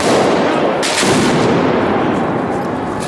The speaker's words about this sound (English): A police car pulled up behind the march, just got their windows broken, fireworks thrown under. Another firework.